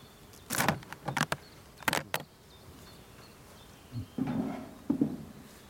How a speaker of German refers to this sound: Da sehen wir, da ist schon einiges los. Was heißt das? Hier sind die Rähmchen schon gut besetzt mit Bienen und arbeiten schon ordentlich ähm, Nektar ein und verarbeiten ihn zu Honig.